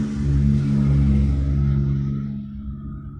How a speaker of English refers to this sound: That's a loud car.